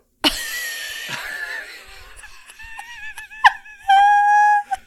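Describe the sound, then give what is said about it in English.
Coughing and throat clearing as a person tries to get something out of their throat, starting with a sharp hacking burst, then rough raspy voiced strains and another cough, ending in a drawn-out, strained vocal hum. “is just coughing out a I don't know what right now”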